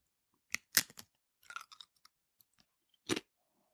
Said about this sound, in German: Du hast also gedacht, wenn du eine Schüssel mit Chips jetzt isst, vor einem super Podcast-Mikrofon, dass man das vielleicht nicht hört. Ja, wenn ich ganz leise so.